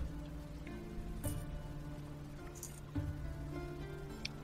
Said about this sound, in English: Um, taking a look, because it's still cloudy and it's it's a little rainy right now. Um, you'd almost swear it's about time where the sun would be setting.